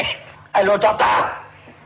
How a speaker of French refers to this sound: Pourquoi tu tousses